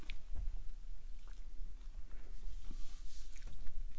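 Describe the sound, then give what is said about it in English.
Quiet sipping from a cocktail glass: a few soft, wet slurps and small squishy sounds spread over a few seconds of low background hiss, with no talking. “Um, all right, I have to take a sip of this cocktail.”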